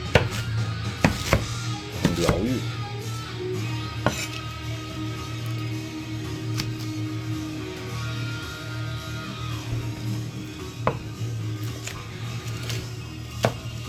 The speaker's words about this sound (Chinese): 而且切小葱这个这个这个动作本身很治愈，